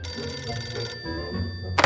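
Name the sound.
telephone ringing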